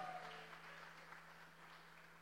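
A crowd claps steadily in a church, a dense wash of applause that holds at an even level throughout, with a faint low hum underneath and no one speaking.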